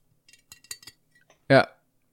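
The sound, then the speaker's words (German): Several light ceramic clinks and taps as a small handmade ceramic cat figurine from Berlin is handled, coming in a quick irregular cluster, then a short loud vocal burst at the end. “Handarbeit aus Berlin Keramik”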